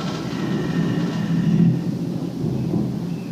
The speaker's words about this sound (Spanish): Y acá como digo, wow, hay una tormenta acá impresionante en este momento. Y son las 11.55 ah, de la mañana.